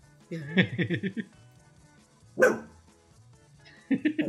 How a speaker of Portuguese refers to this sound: é claro que você tem que latir, óbvio.